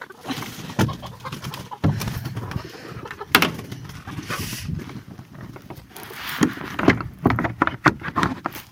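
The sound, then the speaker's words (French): A chicken coop door is shut with several wooden knocks and clatters as the hens are closed in for the evening, while hens murmur and coo softly in the background. “Voilà, on a fermé les poules.”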